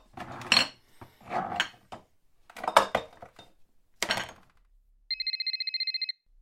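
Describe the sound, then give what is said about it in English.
A telephone rings in one quick, bright trill of rapid metallic pulses, clear, lasting about a second after several louder, unrelated sounds earlier on. “Grandma got a phone call”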